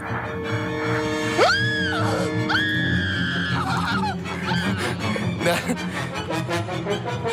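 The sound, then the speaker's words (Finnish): A woman lets out two shrill, rising, loud screams, followed by several seconds of a man's ragged, breathy gasping bursts, heavy panting into a phone. “Kaveri soittaa, huohottaa puhelimeen ja nainen alkaa kirkumaan.”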